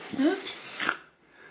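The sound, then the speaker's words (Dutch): Dogs left outside whimper in a couple of short, rising whines, with faint sniffing and snuffling between them. “Zou je nou de honden er niet in laten? Ik vind het altijd zo zielig.”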